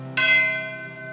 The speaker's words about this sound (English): Christmas Day, 1862, he's sitting in his office at the place where he would always write, and he heard it again the church bells.